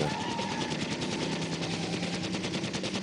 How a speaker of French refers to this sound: Mais quand tu jouais à ce jeu-là, t'entends-tu la mitraillette? Il tombait dans un loop, tout ce que entendais, c'est dans le loop.